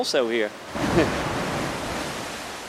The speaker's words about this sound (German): Wichtig ist, wie sie gegen die Wand schlagen und ob sie dabei also Schäden verursachen, zum Beispiel Risse. Ein bisschen sollten wir auch auf uns aufpassen, die Gischt der höchsten Wellen kann sogar bis zu uns reichen.